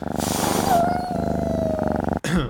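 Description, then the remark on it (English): A domestic cat purrs loudly, a steady rumbling pulse with a drawn-out tonal whine over it, then a brief pause and a short final burst. “Sorry, my cat.”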